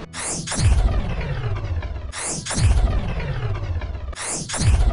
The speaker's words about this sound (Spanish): Oyentes, el cañón ha disparado tres veces en rápida sucesión hacia tres lugares del pueblo, donde los rayos de energía han impactado se han producido enormes explosiones.